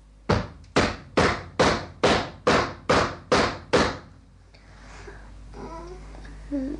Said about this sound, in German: Solche Klopfphänomene gehören zum klassischen Repertoire des Spuks.